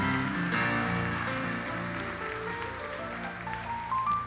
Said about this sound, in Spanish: Amén, iglesia. Quiero que les dé un aplauso al Señor.